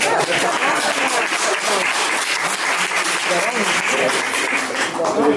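Steady audience applause for an author, a dense, even patter of many hands clapping at constant loudness with no pause or fade, and a faint murmur of voices underneath.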